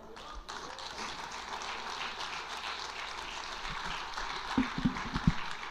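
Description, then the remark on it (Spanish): A crowd applauds God steadily, a dense wash of clapping that holds for several seconds, with a few sharper, louder claps standing out near the end. “¡Aplaudo a Dios mientras tomo agua.”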